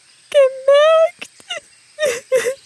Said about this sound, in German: Nein, nicht weinen.